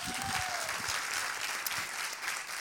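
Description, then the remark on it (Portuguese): A crowd claps steadily, a dense wash of many hands clapping at once that fills the whole stretch without pause, moderately loud, with no one speaking over it. “Pode bater palma.”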